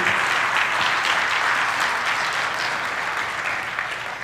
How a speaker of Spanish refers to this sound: Se vale aplaudirle al Señor en estos momentos, hermano.